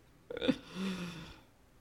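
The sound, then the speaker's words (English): A quick sip and gulp of water with a short clicky swallow, followed by a soft breathy exhale, with no talking. “Let me get some water before I do that.”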